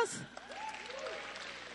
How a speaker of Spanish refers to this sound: Vean este clima, ¿no le dan un aplauso a Dios?